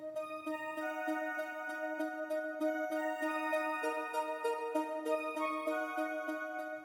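A synthesizer plays a steady melodic line of sustained, bright tones with rich overtones, notes shifting in pitch every half second or so, with no talking over it.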